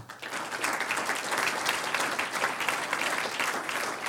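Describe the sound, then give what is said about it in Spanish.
A church audience breaks into sustained applause for the Lord during a sermon, a dense, steady wash of many hands clapping at an even loudness for about four seconds with no one speaking over it. “Un aplauso al Señor.”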